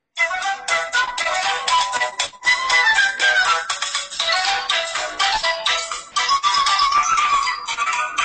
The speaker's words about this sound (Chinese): 给你放个音乐，你一听你就知道我要玩什么了。听好了啊，非常哇塞，也是我现在手机的铃声。